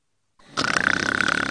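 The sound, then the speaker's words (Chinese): A father's loud, rattling snore begins after a moment of silence and rises into a buzzing, rapidly fluttering drone that holds steady to the end. “爸爸的鼾声总是断断续续的，使我担心 火车出轨了。”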